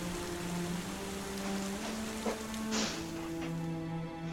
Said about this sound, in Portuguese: a chuva cai sobre o rosto de vocês.